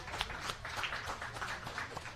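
Steady applause from a crowd fills the whole stretch, a dense patter of many hands clapping at once, fairly soft and even, with no voices standing out.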